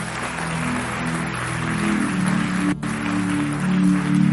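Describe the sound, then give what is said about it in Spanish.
An audience applauds the Lord in a dense, steady wash of clapping that holds for several seconds, with low sustained musical tones humming underneath and a brief dip before it swells again. “Yo no sé si hay alguien que le pueda dar un fuerte aplauso al Señor.”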